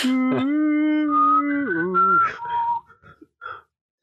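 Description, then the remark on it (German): A person whistles the short Hunger Games signal tune of a few held notes, clear, the pitch stepping up and then down before trailing off into brief faint sounds. “es wäre schön, wenn du, wenn du so einen Hund ähm, so konditionierst, dass er immer bei diesem, bei diesem ähm, Hunger Games Pfeifen ankommt.”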